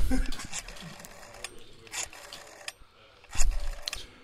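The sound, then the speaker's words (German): An old green rotary telephone dial being turned and released to call Tim Wiese, making several whirring, ratcheting bursts of clicks with short pauses between them, fairly loud and mechanical. “Das dauert ja länger zu wählen, als mit ihm zu sprechen.”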